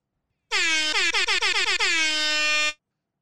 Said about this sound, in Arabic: انا اتوقع انه لازم نحط صوت الحرق لانه يمكن يكون في حرق يعني جاست ان كيس اوكي اي إيه، احتياطا اي جاست ان كيس